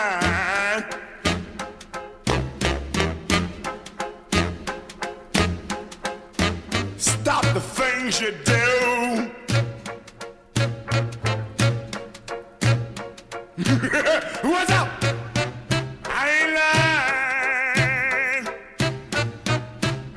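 A 1950s rhythm and blues song plays, with a steady beat, bass and horns under a wild, screaming, howling male vocal that rises to raw shrieks.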